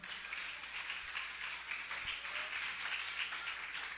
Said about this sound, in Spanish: Dale un aplauso a Cristo si pueden esta hora.